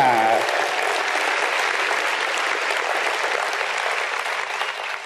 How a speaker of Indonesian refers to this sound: Tepuk tangan semuanya.